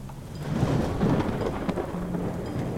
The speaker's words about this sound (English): And one of the days, as you're traveling, another storm strikes.